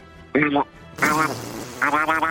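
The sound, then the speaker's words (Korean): A person imitates a duck with three nasal, raspy quacks, the first short and the next two longer, spaced apart and fairly loud. “오리 소리 한번 해보겠습니다.”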